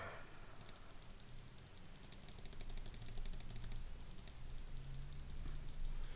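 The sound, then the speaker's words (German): Rapid, fairly faint mouse or keyboard clicking in irregular bursts while someone plays a computer game, over a low background hum, with no one speaking. “wer spielt denn hier Klickerspiele dazu?”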